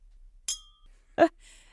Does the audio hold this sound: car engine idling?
no